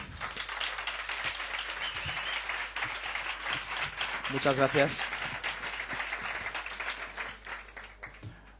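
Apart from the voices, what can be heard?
audience applause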